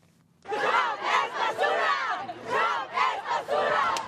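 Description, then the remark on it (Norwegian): A crowd of demonstrators against Donald Trump, mostly in their twenties, some with Mexican flags over their shoulders, chants "Trump is garbage" loudly in rhythmic bursts across the street from people queuing for a Trump campaign event, voices rising and falling together after a brief quiet start. “Trump er søppel, roper demonstrantene.”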